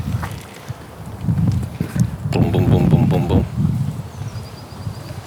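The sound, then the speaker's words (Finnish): Low, gusty rumbling of wind buffets the microphone outdoors, within view of Vartiosaari island, swelling and easing unevenly beneath a person's speaking voice. “Auttaisi nyt tuuli ottaa vähän tuossa.”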